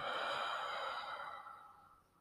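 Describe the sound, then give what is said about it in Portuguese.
A slow, deep breath drawn in through the nose and let out through the mouth, an airy whoosh that gradually fades away over a couple of seconds, with no talking. “Puxa pelo nariz, solta pela boca.”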